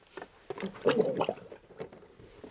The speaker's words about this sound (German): Das geht nicht gut. Der Mischer röchelt schon. Aber er hat den Kopf bis zu den Ohren drin.